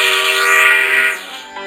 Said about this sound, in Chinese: 现在我们的火车要开始了